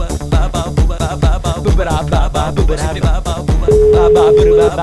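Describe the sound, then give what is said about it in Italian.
A single steady telephone ringback tone, about a second long, sounds near the end over loud drum-driven music, and nobody picks up. “Ultimo squillo. Niente.”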